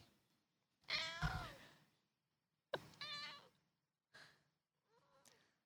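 A cat named Bella meows four times in a row, the first call long and drawn out, the later ones shorter and growing fainter, with quiet pauses between and no talking.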